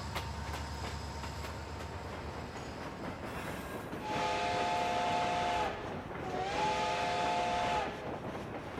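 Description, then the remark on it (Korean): A train carrying five farm workers to prison rumbles along steadily, then sounds two long whistle blasts separated by a short pause, the second one slightly longer, both ringing out clearly over the rolling noise. “기차가 간다. 기적을 울리며 저기 간다.”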